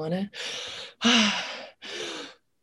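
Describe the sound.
A voice performs a series of three or four heavy, breathy gasps for air in relief, each a rough rushing exhale or inhale, fairly loud, separated by brief pauses.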